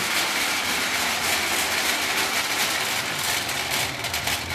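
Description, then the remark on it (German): An old, cheaply made tin toy train set down on the floor rolls along with a steady, rattling whir, a continuous metallic buzz that stays loud throughout without any talking. “Und wenn man es dann auf den Boden setzt, dann rollt sie natürlich auch dann hier.”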